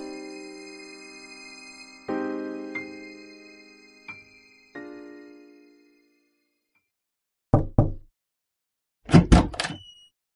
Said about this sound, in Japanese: 反問の末、ひとまずは生き延びることを選び取り、銀行口座の頼りない残高に背中を蹴られるようにして、僕は匿名の扉を叩いたのだった。